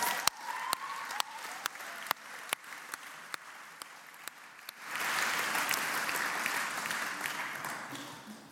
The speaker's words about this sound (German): Geben ihnen doch einen fetten Applaus.